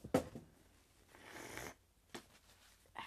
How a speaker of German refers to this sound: Warte, ich muss mir kurz meine Nase putzen, liebe Zuhörer.